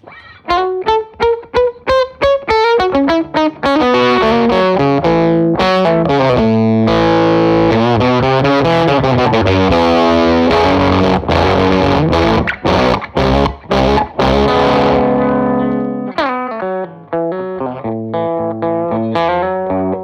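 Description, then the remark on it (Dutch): Electric guitar through a Dr. No Octafus octave fuzz pedal, playing a run of quick staccato notes and then held, saturated chords with a thick, buzzy, distorted tone, loud throughout with brief choppy gaps. “Naar de Doctor Dr. No Octafus. Nice laat hem eens horen.”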